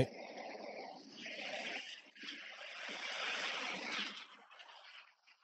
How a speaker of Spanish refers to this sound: Va a pasar un tráiler, agua, ahí el ruido.